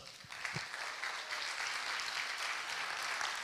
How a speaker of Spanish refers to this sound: Amén. Denle el aplauso a Dios.